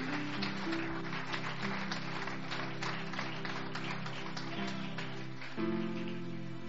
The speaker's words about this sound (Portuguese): Você pode aplaudir, aplaude com vontade!